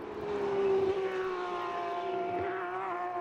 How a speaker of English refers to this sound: So Van Berlo, with 1.6 seconds to make up, has just done his fastest first sector of the race as the white flag is thrown very enthusiastically as the cars go across the start finish line.